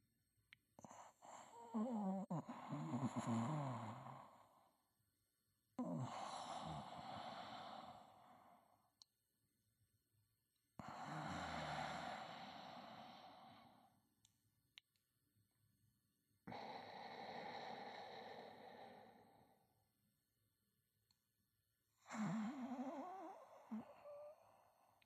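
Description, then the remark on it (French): Slow, heavy breathing of a dying man, the speaker's father: five long, raspy breaths, each lasting a few seconds with a wheezy, rattling edge, separated by silent pauses. No one speaks. “Puis on écoute sa respiration.”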